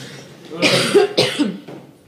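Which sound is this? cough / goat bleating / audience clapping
cough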